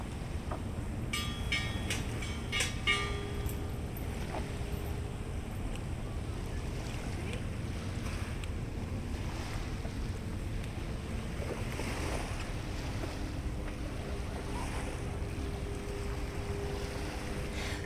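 A steady, low wash of harbor water laps against moored yachts and boats at the Vancouver Seawall, Canada, with a few brief creaks and metallic clinks early on over the continuous rumble. No one speaks.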